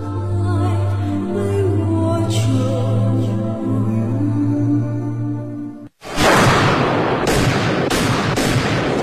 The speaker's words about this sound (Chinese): 随着几声清脆的枪声，保镖弗兰克又化解了一次惊险的暗杀行动。